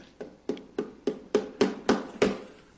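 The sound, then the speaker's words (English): Seven firm knocks on a door in a steady, even rhythm, each a sharp thud with a short ring, growing slightly louder toward the end, clear with no voices. “And oh, who's at the door? Opportunity. And it's knocking.”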